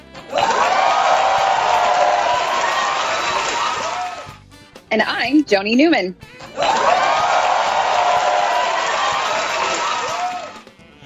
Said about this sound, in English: And what you are hearing is how annoying it is when they put applause breaks when somebody sets foot on SNL's stage.